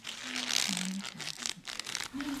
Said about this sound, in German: Mit welcher Hand möchtest du nur nach dem Papier hier greifen?